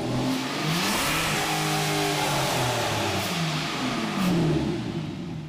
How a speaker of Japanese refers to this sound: パワフルで繊細なアストン・マーティンの V12 サウンドでした